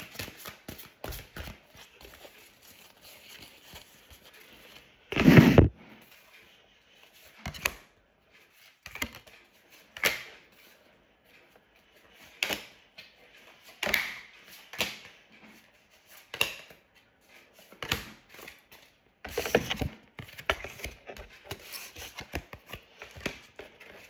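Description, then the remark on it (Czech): Crisp bursts of tarot cards being shuffled and riffled during a tarot reading, with a loud flutter early on and then irregular soft slaps and rustles every second or two, no voices. “já už se dívám na vaši fotku, míchám u toho karty a my se spolu podíváme, co nám Tarot řekne o tomto partnerském stavu.”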